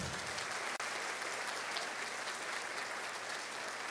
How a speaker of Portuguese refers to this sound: Você pode levantar sua mão, pode aplaudir Jesus primeiro.